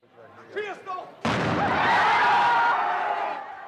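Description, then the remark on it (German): Faint voices give way to a single loud ceremonial Böller cannon blast fired in salute at the traditional Fischertag festival in Memmingen, Germany, its sudden boom rolling into a long, roaring wash of sound that slowly fades. “Nach dem Böllerschuss springen mehr als 1000 Männer mit Hut und Hemd in die eingefasste Memminger Ach.”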